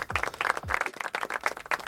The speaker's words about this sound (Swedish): Ja, det är faktiskt värt en applåd.